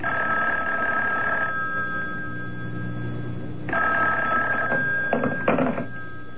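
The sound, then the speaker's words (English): A telephone rings in repeated bursts, a bright steady bell tone sounding for over a second at a time with pauses between, the later rings shorter and more broken. “I told you not to call me direct.”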